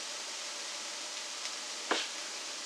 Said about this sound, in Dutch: Ik ben nu lekker de pruimtomaatjes aan het klein snijden.